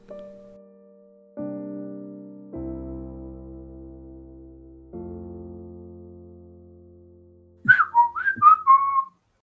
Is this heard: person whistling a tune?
yes